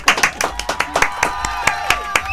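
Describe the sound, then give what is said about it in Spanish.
A crowd applauds with a steady patter of crisp, overlapping hand claps at moderate loudness, with faint voices and cheers murmuring underneath throughout the short burst. “Un aplauso para Sani Bandes.”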